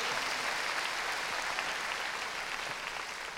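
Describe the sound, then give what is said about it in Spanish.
An audience claps loudly together for the Lord in a steady, dense wash of applause that holds at an even loudness for several seconds, with no voices standing out. “Hermano, démosle palmas fuertes a nuestro Señor.”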